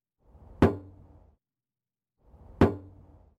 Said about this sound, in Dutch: Ja, we horen het, eh, het, het uitzetten van de batterij bij het opladen van een eh, Tesla-auto.